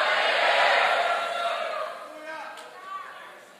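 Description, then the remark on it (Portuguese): A large audience shouts and cheers together in a loud, sustained victory cry in the name of Jesus that peaks early and then gradually fades, with scattered voices and whoops trailing off. “Você pode dar um grito de vitória em nome de Jesus?”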